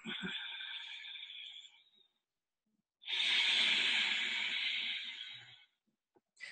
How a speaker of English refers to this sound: for those of you who've done yoga, is what they call resistance breathing or ujjayi breath. So it sounds a little bit like an ocean wave. Now we're going to be doing it in and out of the nose. So it sounds a little bit like this.